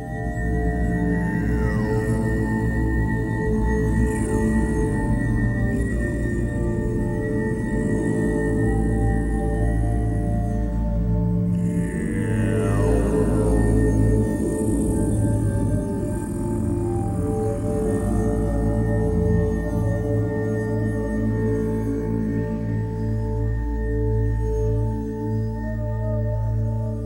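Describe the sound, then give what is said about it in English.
Low, drawn-out monk-like moaning vocals in a chant-like drone, their sound altered and washed in heavy added reverb, with slow sliding pitches and a steady, dense hum throughout; no speech. “The monk like moaning you're about to hear was actually produced by … and …”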